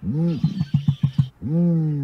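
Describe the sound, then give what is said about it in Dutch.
A deep, resonant reconstructed dinosaur call, more like a crocodile than a roaring lion: a low tonal groan, then a quick run of about six throaty pulses, then another long, breathy rumble, an air burst with a little tone added to it. “Het is eerder een eh, luchtstoot die een beetje, waar een beetje klank aan toegevoegd is.”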